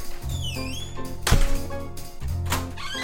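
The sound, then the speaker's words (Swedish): A single solid thunk, like a knock on or bump against a door, followed a second later by a softer scuffing burst as someone enters, over a steady low hum; a faked knock and entrance into an apartment, re-enacted for a recording. “Så vi måste fejka både knackningen och ingången igen så att jag får det på band.”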